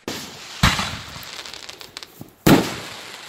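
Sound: fireworks going off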